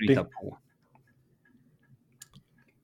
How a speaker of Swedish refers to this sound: Vad är det som eh, klickar i bakgrunden? Ja, det är min fläkt här.